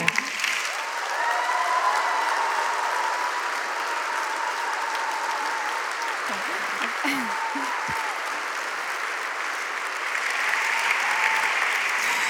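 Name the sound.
audience applause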